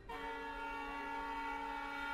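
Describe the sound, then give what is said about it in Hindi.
A train whistle sounds one long, steady blast at a railway station as the train is about to depart, starting abruptly and holding an even, rich tone for about two seconds with no voices. “जब गाड़ी ने सीटी दी”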